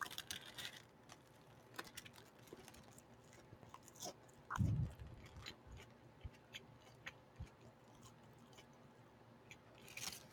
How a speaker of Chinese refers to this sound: 我现在要来吃就是劲辣鸡腿堡，可是它放很久了，而且这个面包软的，我不知道有没有声音，不然就只还是就是包装纸摩擦声音。